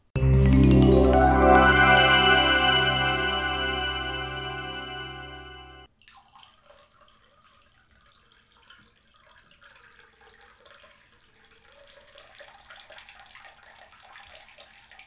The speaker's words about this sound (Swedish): Det är en bra, ett bra segway-ljud. Eh, från ett ämne till nästa.